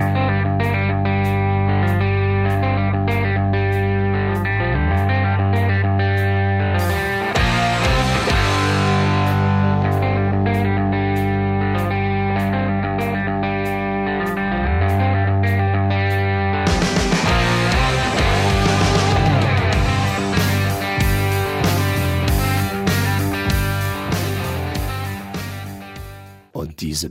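A loud, steady blues rock track with distorted electric guitar, a driving drum beat and thick bass, full and continuous throughout with brief build-ups and fills.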